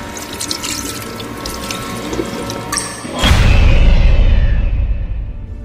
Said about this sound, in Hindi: जब वो वापस बाथरूम में गई तो देखा जिस नल को वो बंद करके आई थी वो नल चालू था